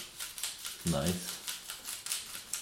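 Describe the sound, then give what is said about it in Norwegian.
Camera film winding onto the spool makes a steady run of rapid mechanical ratcheting clicks for a few seconds, with a single short word spoken partway through. “Det er filmen som går på spolen.”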